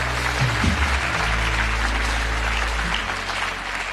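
A large crowd in a church claps steadily for a band for several seconds, a dense, continuous wash of applause with no voices standing out.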